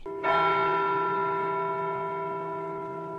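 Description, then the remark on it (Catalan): A single sharp strike sets a bell ringing, its bright, layered tones sustaining loudly and fading only slightly over a few seconds, with no voices present. “El cop va ressonar com la campana que havien sentit a casa, com la que sonava cada cop que desfeien un encanteri.”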